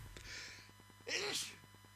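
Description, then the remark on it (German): Two sneezes in quick succession, the first softer and breathier, the second a sharper, louder burst, with a faint hum underneath. “Tut mir leid, musste zweimal hintereinander niesen.”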